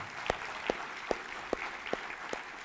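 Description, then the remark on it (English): Audience applause at a Storyline gathering for the graduating seniors of the class of 2022, a steady wash of clapping with a few sharp claps standing out at an even, rhythmic beat. No one speaks. “Uh, welcome to the gathering, and congratulations to our graduating seniors, the class of 2022. Can we hear it for them?”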